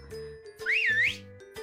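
A single bright, sliding whistle rises, dips and swoops back up in one smooth playful arc, standing out over a faint low hum with no talking.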